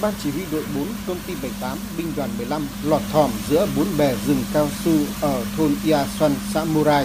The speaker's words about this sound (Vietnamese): đó là tiếng máy thổi lá cao su. Theo chị, thổi lá để bón phân, rồi thổi lá lớp phân bón là công việc phải tiến hành rất gấp rút